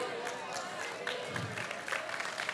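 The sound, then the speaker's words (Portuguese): A church audience applauding the Lord, a dense, steady wash of many hands clapping at once with no clear pauses, with some crowd voices mixed in underneath. “Aplauda o Senhor, mas saiba quem você está aplaudindo.”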